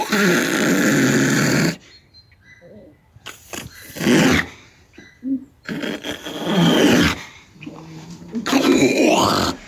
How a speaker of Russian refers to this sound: Возмущению тюлененка нет предела. Двухмесячная самка совсем не хочет уезжать в Венспилс и изо всех сил демонстрирует сотрудникам Рижского зоопарка свое недовольство.